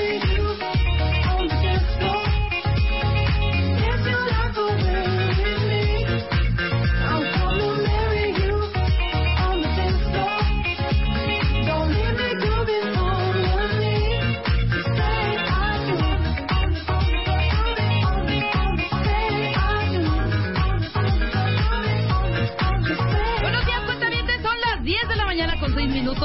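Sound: song played on air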